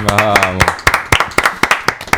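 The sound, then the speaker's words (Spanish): A short burst of voice gives way to steady, rhythmic hand clapping, roughly ten crisp claps at an even pace, fairly loud, like a small group applauding. “Aplausos.”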